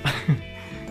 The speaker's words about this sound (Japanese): あの、まだ咳が若干残ってたりとかでお聞き苦しいところもありましたが、なんとかここまで来れました。